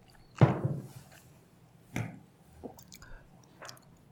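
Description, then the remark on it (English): Wet mouth sounds of someone sipping water between whisky tastings: a louder slurp and swallow, then a couple of softer sips and small gulps spaced out over a few quiet seconds, with no talking. “You have a sip of water and let your tongue breathe out a bit.”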